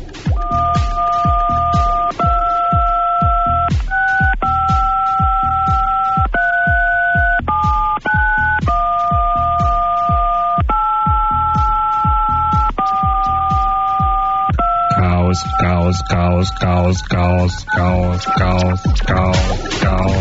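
Telephone keypad tones beep out the children's song Alle meine Entchen, each dual-tone note held for a second or two in steady sequence over a thumping background beat, then give way to other sounds near the end.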